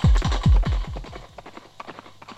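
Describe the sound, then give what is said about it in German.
Hooves of two hired horses, ridden toward a house at night, clip-clopping in a quick, steady rhythm, the first several beats loud and deep, then trailing off into fainter, lighter taps. “Hier drehten sie um, so dass es schien, als kämen sie eben aus der Romagna, ritten auf das Haus zu und klopften an die Tür des guten Mannes”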